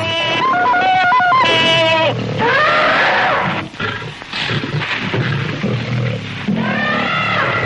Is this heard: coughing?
no